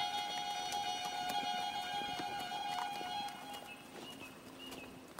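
Horse hooves clip-clop at an uneven trotting pace over a steady, high ringing drone, the hoofbeats fairly soft, with no voices.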